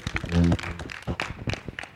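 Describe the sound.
A burst of scattered audience clapping, irregular, with a voice calling out briefly at the start.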